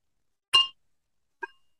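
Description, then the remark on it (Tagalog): Two quick clinks of glasses touching in a toast, the first bright and ringing, the second softer and duller after a short pause, with no talking. “Lately, yung tunog ng mga baso natin ang pangit.”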